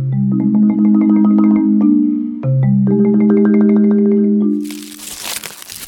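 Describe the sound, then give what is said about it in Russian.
A foil chocolate wrapper crinkles in a brief, bright burst near the end, preceded by a steady low humming drone dotted with small clicks and crackles. “Что это за шуршание я слышу? шуршание. Я долго соображала. Это хруст фольги.”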